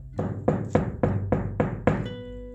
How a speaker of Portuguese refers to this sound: Na manhã seguinte, ouviu alguém batendo na porta.